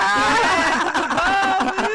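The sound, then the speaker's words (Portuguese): A voice mimics a loudspeaker car's blaring announcement, a loud, continuous, nasal tone with wavering pitch and a rough buzzing rhythm, filling the whole moment. “Você ainda memória... faz o carro de som?”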